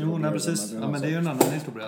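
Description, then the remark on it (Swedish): A chair gives a single short, sharp crack as it creaks under weight, popping out in the middle of steady conversation between people talking. “Det, oj, det var en stol här som eh, ja, brakade. Nej, det knäcker lite.”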